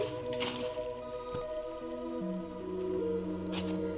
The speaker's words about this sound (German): Da wird jetzt hier wahrscheinlich alles unten tropfen.